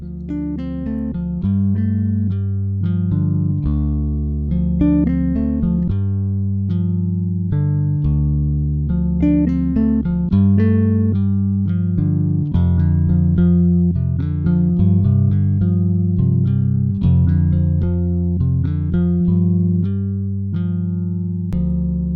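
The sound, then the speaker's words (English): A short instrumental theme tune plays at steady volume for about twenty seconds, with a repeating bass line and bright melodic notes over a sustained synth-like pad, no voices. “but even before I do that, here's a short burst of music I'm trying on for size as the theme tune to this show.”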